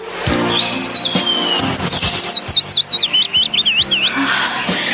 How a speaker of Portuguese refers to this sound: Há quantos anos não ouço os pássaros? Eles estão saudando a nossa chegada.